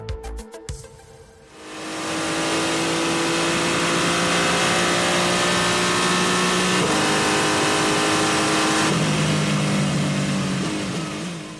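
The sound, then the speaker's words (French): A race car engine roars up loudly after a brief clicking start, holding a sustained high-revving whine with a couple of gear shifts, steady for around ten seconds, on the circuit of the 24 Hours of Le Mans. “Ça, c'est le bruit d'une voiture de course sur le circuit des 24 heures du Mans.”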